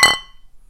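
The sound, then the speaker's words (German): A single bright clink of glasses touching in a toast, fairly loud, with a short ringing tone that fades within a fraction of a second into near silence. “So, na dann, Prost.”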